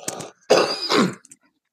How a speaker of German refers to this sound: Ähm, mein Senf dazu ist, Moment, ich muss mal kurz husten.